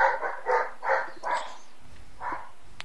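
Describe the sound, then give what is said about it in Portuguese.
A dog barks repeatedly in a quick series of about five sharp barks, then pauses before one more bark, loud with no one talking. “Ó, o cachorro tá puta agora com alguma coisa.”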